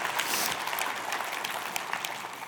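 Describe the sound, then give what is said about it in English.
Steady applause from a church audience during a sermon, applauding Jesus, the Lamb of God: many hands clapping in a dense, continuous patter with occasional sharper claps standing out, sustained at an even level throughout with no talking. “Well, give him an applause for heaven's sakes.”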